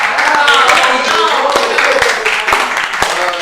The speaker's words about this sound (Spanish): Agradezco la invitación y un fuerte aplauso para ustedes.